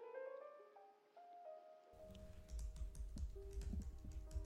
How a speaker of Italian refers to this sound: Il suono delle dita dell'operatore che sbattono sulla tastiera riempie il mio timpano